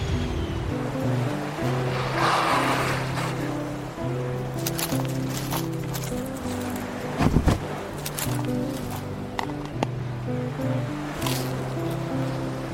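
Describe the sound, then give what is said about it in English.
A car engine hums and rumbles steadily as it drives and pulls in to park by a bench, with a washy rush of noise throughout and a short burst of heavier thumps partway through. “Park over there by the bench.”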